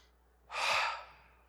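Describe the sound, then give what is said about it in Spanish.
A single deep, airy breath, rising quickly, holding for about half a second, then trailing off softly. No one speaks. “Sabía, mire, respire conmigo de veras.”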